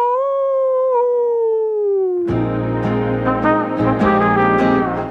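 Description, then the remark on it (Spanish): A long, wavering werewolf-style howl glides slowly downward for about two seconds, then loud, dense, rhythmic music abruptly takes over. “El hombre lobo. ¡Aú!”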